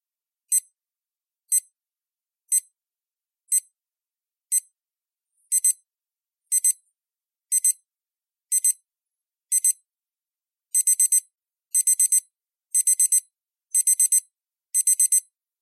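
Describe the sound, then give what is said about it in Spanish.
A digital alarm clock beeps, high and sharp, escalating from single beeps about once a second to pairs, then rapid four-beep bursts, loud with no other sound. “Es una cita célebre de Jasper Forde y sirve para dar comienzo a este despertador de conciencia que está a punto de sonar.”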